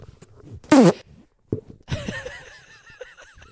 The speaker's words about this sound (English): That's that was loud. That's gonna be in the audio. I hope you know that. Hold on a second. You just farted.